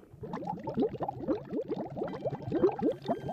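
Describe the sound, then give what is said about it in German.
Methane gas bubbles rise through seawater in a dense, continuous gurgle, rapid overlapping bursts churning steadily for a few seconds, moderately loud, with no voices; a blowout in which ice melts as the sea warms and a large amount of methane escapes and rises explosively. “Dabei schmilzt das Eis und eine große Menge Methangas entweicht und steigt explosionsartig nach oben.”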